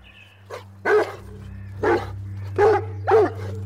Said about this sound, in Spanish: Un día, mientras pasaban tiempo en el parque, un perro muy grande y de muy mal carácter empezó a ladrarles a las hermanas.